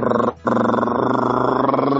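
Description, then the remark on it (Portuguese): A voice imitates the jet turbine of an airplane aborting its landing almost at the ground in lightning and wind, with a loud, steady, buzzing roar, interrupted by a brief gap near the start and then held unbroken for over a second and a half. “E aí você escuta a turbina fazer.”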